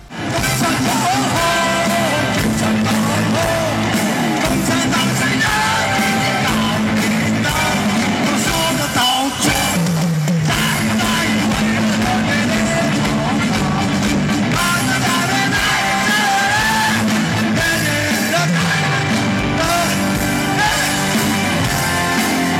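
A loud live rock performance of a rock version of a patriotic song, recorded at a 2015 concert in Chongqing, China, with dense full-band instrumentation and raw, shouted-sounding vocals driving steadily through the whole stretch without a break.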